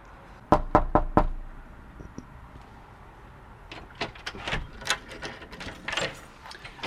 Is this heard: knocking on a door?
yes